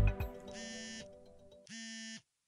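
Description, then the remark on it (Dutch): A telephone rings in two short buzzing bursts with a brief pause between them, loud, with no one speaking, just a soft knock at the very start. “Ook vandaag krijgt hij een telefoontje van centrumleider Jurgen Kamps.”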